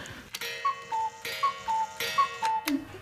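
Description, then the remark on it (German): An original Black Forest cuckoo clock, its call made by a bellows and pipe, calls three times, each a two-note high-then-lower "cu-ckoo", with sharp mechanical ticks and clacks between the calls. No one speaks. “durch die Pfeife und so macht jede original Schwarzwälder Kuckucksuhr Kuckuck.”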